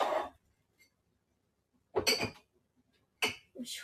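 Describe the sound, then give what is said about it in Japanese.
Dishes clatter and clink as they are taken out of a dishwasher, a few separate bursts of knocking crockery spaced by short quiet gaps, with no talking. “今ちょっと食洗機の中の食器を片付けています。”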